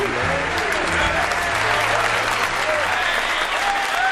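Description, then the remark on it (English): Steady, dense canned audience applause on a 1974 recording fills the whole stretch at an even loud level, a uniform wash of clapping with no build or fade and no voices breaking through. “I don't think the audience is real.”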